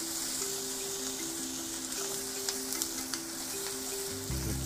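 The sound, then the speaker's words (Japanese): Steady sizzling of shrimp and onions frying together in a pan, with the shrimp burning: a continuous hiss with scattered small pops and crackles over a low background hum, with no talking. “エビ完全に焦げてるわやったなこれ玉ねぎと一緒に入れるんじゃなかった玉ねぎから炒めるべきだったやってんなちょっと硬いぐらいでいいかな”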